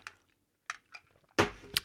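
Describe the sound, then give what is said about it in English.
Someone sips water from a glass: a few soft, brief slurping sounds, a pause, then a louder gulp and a light clink near the end, with no talking. “and let me take a sip of water”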